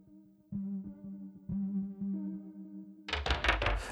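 A rap song intro opens with sustained, buzzy low synth notes that restart in a steady pattern, then a loud, dense beat with heavy drums bursts in for the final second.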